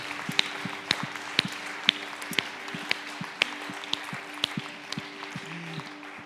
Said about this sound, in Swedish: I Bibeln står det till och med träden och står att bergen ska dansa och träden applådera. Så det är okej okay att applådera, eller hur?